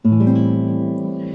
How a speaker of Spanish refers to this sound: está el menor 7, que es una tristeza más asumida, como en el blues, que suena así.